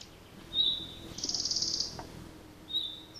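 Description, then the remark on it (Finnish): A red-breasted flycatcher gives a quick, dry clicking rattle lasting under a second, heard in the background between two brief high whistled notes. Fairly faint, with no voices. “Pikkusiepon laulu on helppo oppia tuntemaan, mutta tämä taustalta kuuluva naksutus, vetelähkö rätinä, on myös hyvä oppia tuntemaan.”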